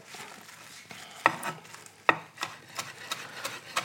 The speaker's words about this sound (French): Les petites feuilles de menthe sont séchées. Et là, pareil, je vais me les ciseler finement.